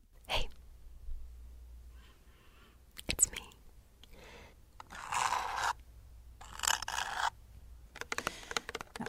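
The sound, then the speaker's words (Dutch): Quiet ASMR crinkling and crackling bursts come in uneven clusters, some sharp and brief, others longer rustling stretches, with soft breathy whispering in between. “Dat je onder andere krijgt door geluiden van fluisteren, knisperen of kraken.”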